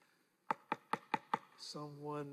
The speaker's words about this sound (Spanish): Alguien llama a la puerta.